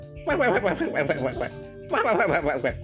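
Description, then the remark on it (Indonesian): A person makes quacky, chuckling vocal sounds in two rapid bursts, imitating a duck laughing, fairly loud with a short pause between them. “Gini loh bebek kalau tertawa.”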